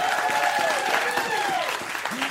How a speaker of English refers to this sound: We're back. Applaud.